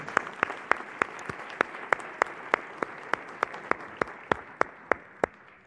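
audience applause

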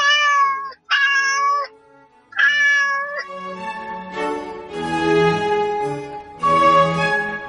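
cat meowing

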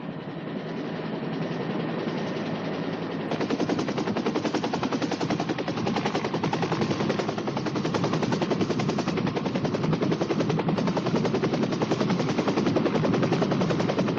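helicopter taking off

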